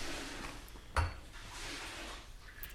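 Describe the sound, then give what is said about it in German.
Coffee pours steadily into a glass with a soft, hissing trickle, broken by one sharp glassy clink about a second in and a fainter tap near the end. No voices. “Krieg ich noch einen Kaffee? Also mein Glas ist schon wieder Ich gerne nochmal nach, ja.”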